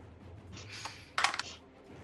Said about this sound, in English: and that is the, like the fifth time I've rolled a seven on the dice tonight.